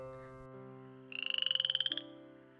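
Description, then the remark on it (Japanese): A frog that lives in the forest gives one rapid, rattling croak, a quick burst of about fifteen pulses lasting roughly a second, over a soft, steady musical drone. “よく耳を澄ましてみて誰かの声がするよ誰だろうあそこにいるのはカエルさんだカエルさんこんにちはあこないだ会ったカエルさんだ”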